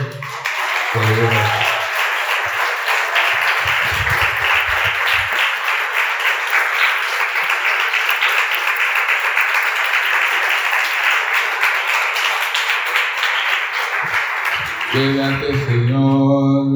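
An audience breaks into sustained, loud applause for the Lord lasting over a dozen seconds, a dense steady wash of clapping, with a few brief voices near the start and music or singing returning at the end.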